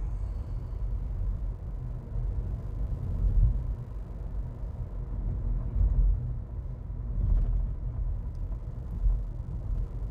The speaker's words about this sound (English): hang on a second, guys. I got a piece of construction equipment coming up on me. And as you guys know, here lately, I've been doing all of my podcasts in my car on the drive home.